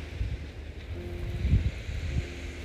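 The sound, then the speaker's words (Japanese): A low, steady motor drone from several fishing boats heading out on the sea, with Mount Fuji in view, mixed with rumbling wind and the wash of the sea, continuous with no voices. “目の前には富士山があり釣りに出るボートが何層かあります”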